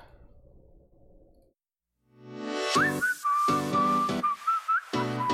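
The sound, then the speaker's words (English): A bright whistled melody in a pop song intro rides over a punchy pop beat with steady rhythmic hits, clear and upfront after a brief quiet lead-in of low ambient sound. “Oh, I do love whistles.”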